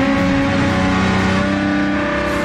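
A Formula 1 race car engine being tuned revs loudly, a sustained, buzzing high-pitched whine held steady for a couple of seconds with no voices over it.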